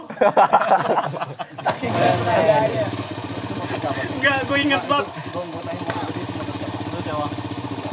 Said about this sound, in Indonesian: Oh pegangin gue orang jalan nih motor